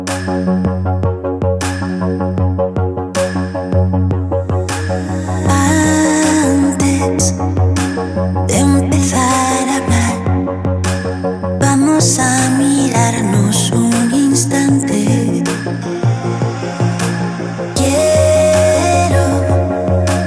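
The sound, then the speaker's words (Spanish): A loud electronic music track, a collaboration, plays continuously with a steady, regular beat over sustained synth tones and deep bass, building in density partway through, with no talking. “poco a poco fue posicionándose y ahora es un gran nombre en la escena electrónica, no solo de España, sino de toda Europa y quizá del mundo.”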